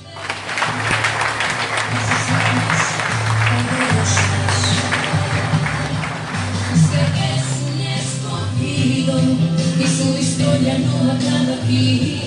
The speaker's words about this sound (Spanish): Fuertes aplausos.